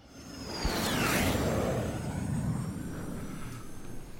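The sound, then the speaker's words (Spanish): A loud aircraft roars past in a takeoff whoosh, its broad engine rumble swelling quickly with a descending high whine, then sustaining as a steady roar. No voices. “Despegamos a una nueva expedición en 5, 4, 3, 2, 1.”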